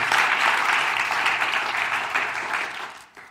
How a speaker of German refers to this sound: Ein großer Applaus mal von unserer Jugend.